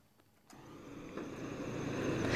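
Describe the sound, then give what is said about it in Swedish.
A vehicle engine starts up abruptly at the new bus terminal in Nickby, on Stora Byvägen, and runs with a steady, rising rumble, growing slightly louder over a couple of seconds, with no voices present. “Jag befinner mig vid den nya bussterminalen här i, i Nickby.”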